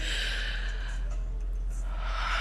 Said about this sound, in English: you will then start to breathe heavy breathing and focus on your breathing. It's like you're channeling in on your breathing.